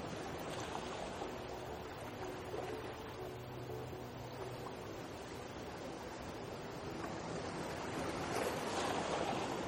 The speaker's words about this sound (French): Le bruit des vagues continue de vous bercer doucement.